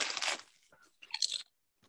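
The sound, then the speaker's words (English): Loud crunching of chips from a bag with two flavors in one: a burst of brittle, crackly bites, a short pause, then another crisp crunch before it falls quiet. “Yeah, give me that crunch. That's great crunch.”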